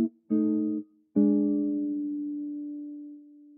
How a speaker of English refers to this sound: So C7, F7, B flat 7, pretty similar sound. So wh- why why is that? So we can think about these these two tones of the C and these two tones of the F or the B. These two tones of the B flat.